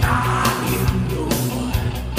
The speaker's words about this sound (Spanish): para los que están despertándose con este grito de …